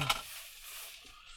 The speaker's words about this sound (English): Raining away. I could see that. I could see that rain like 20 minutes ago out, out in the Solway. I thought, yeah, that rain's coming this way.